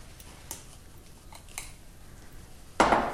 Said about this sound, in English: But equally, I don't want to get rid of too much. And what I'll do is, is finish that actually with a, with a big whisk to knock out some of those lumps.